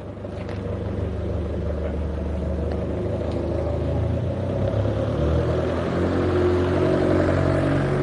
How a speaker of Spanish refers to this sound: que este coche va a venir por aquí. Subimos para la acera.